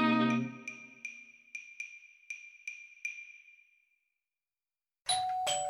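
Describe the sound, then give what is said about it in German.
A doorbell chimes again and again as a food delivery from a restaurant arrives, about seven bright, quick rings that ring out and fade, followed after a short silence by a brief, sharp electronic tone. “Ah, der Klang, wenn die Leibspeise vom Lieblingsrestaurant ankommt.”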